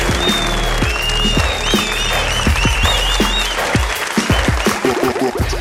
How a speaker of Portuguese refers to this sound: Tá uma salva de palmas para a Matilde Barros.